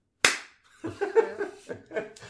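A single sharp, loud hand clap, struck like a clapperboard to mark a start, rings out and decays quickly before people break into laughter.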